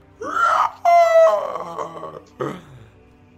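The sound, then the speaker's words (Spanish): A voice imitates a monster screaming again: a rising wail, then a loud, shrill, strained screech that fades into a wavering moan, ending with a short, lower groan. “Va el monstruo, amigos. Y ves que de nuevo grita.”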